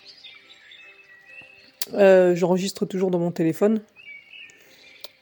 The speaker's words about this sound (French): un petit son euh, de nature, d'oiseaux et de rivières qui coulent derrière, en fond